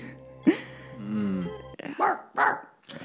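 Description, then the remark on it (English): Someone mimics a little rat terrier: a whiny drawn-out tone, then a quick run of three or four sharp, yappy barks, fairly loud with no other sounds. “It was it was a little rat terrier, so it didn't oh.”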